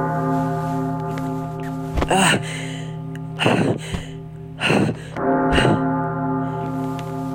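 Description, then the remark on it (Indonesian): A deep, resonant clock bell tolls slowly at midnight, four strikes spaced about a second apart, each ringing out with a long humming sustain that hangs in the air between strokes. “Kenapa tiba-tiba ada suara lonceng tengah malam gini.”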